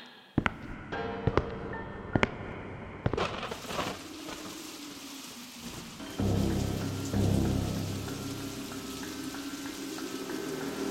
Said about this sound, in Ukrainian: Дощ почався ще з вечора, перерісши в зливу по дорозі до суду.